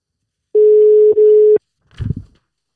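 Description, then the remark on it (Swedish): A steady, single-pitched telephone ringing tone on an outgoing call sounds for about a second with a brief break in the middle, then cuts off, followed by a short muffled clunk. “Så att vi testar och ringer så får vi se.”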